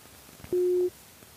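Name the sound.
telephone busy tone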